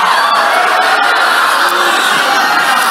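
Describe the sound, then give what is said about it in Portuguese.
A large crowd at a worship service shouts and cheers together in a loud, sustained roar, many voices blending into a continuous wall of jubilant noise that fills the space for the whole moment. “Libera o grito, libera a adoração, libera a dança, libera júbilo.”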